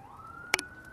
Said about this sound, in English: That was great with those sirens in the background.